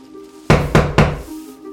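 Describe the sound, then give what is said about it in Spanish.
Three firm knocks on an old door in quick, even succession, loud, with a faint low hum in the background before and after. “abre la puerta.”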